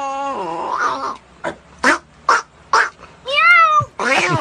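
A cat meows loudly: a long drawn-out meow, a quick run of short, sharp cries, then two wavering, rising-and-falling meows, with no one talking.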